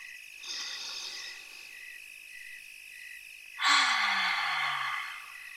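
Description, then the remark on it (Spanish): A soft breath drawn in, a short pause, then a louder, longer airy exhale, taken as a deep breath with eyes closed during a relaxation exercise, over a faint steady chirping of insects in the background. No one speaks. “Vamos a ponernos muy cómodos, cerramos nuestros ojos y tomamos una respiración profunda.”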